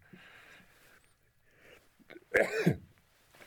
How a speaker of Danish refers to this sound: Ja, jeg er glad for, at jeg skulle nyse, for det skal jeg altså lige tænke lidt over.